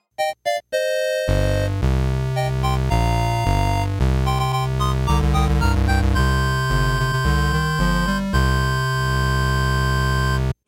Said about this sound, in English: Let's listen to the fanfare.